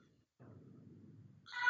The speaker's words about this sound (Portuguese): Opa, passou um, um, apressado aqui buzinando. Não sei se vocês tiveram esse, esse prazer de ouvir esse barulho.